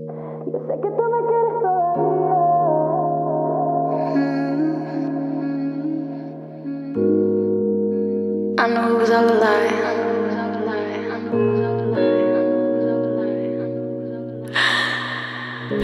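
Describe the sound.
An urban reggaeton song plays loudly and steadily, with sustained layered chords that shift every few seconds and a voice singing over the music.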